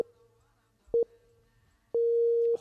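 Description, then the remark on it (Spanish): Radio time signal pips marking half past two in the afternoon: two quick, loud electronic beeps in close succession, then after a pause a longer sustained beep at the same pitch, clean and steady with no talking over them. “Ahí están. Señales horarias.”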